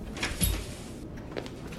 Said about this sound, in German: Er öffnet die Tür ganz langsam und leise